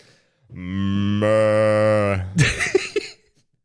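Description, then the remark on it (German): A single long, loud cow moo, steady for nearly two seconds, followed by a brief burst of muffled voice and rustling. “Die Kühe sind gut.”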